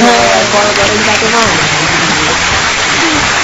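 applause

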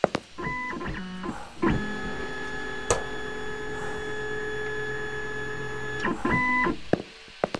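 printer printing out pages

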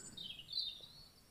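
birds chirping and singing

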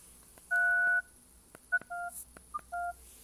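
telephone keypad dialing tones

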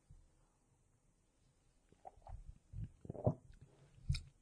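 sipping coffee

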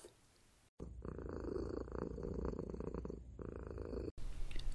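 cat purring

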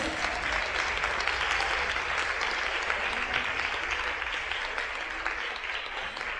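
audience applauding loudly

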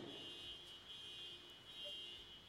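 car alarm going off

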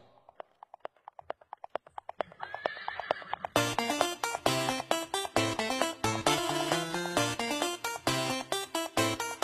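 donkey braying

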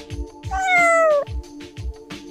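black cat meowing

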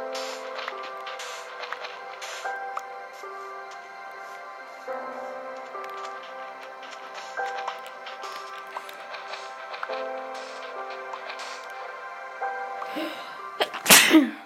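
sneezing

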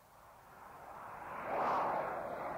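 airplane cabin engine drone

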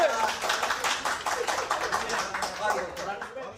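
applause sound effect

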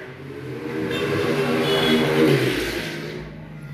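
motorcycle passing by

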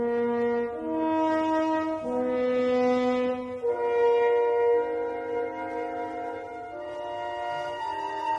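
orchestral film theme music

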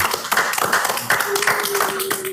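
hand clapping

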